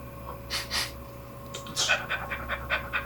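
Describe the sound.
A small, patchy mixed-breed dog named Alfie, not especially big, with funny paws and droopy ears, pants with its tongue out in quick, breathy bursts: two huffs, a short pause, then a faster run of rhythmic panting against a low steady hum.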